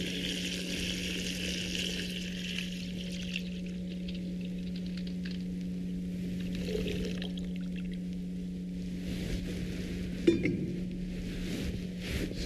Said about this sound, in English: Something about water being poured.